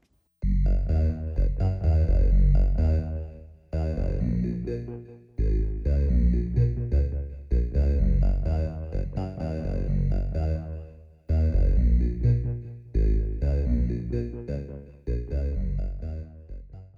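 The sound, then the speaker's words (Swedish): A Minimoog monophonic analog synth with very high filter resonance plays sustained, vowel-like notes in short phrases separated by brief pauses, loud, with no talking. “om man har jättemycket resonans på filtret så kan man hitta väldigt sådär eh, vokala ljud.”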